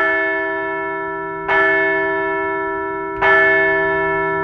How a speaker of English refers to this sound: So let's ring the bell.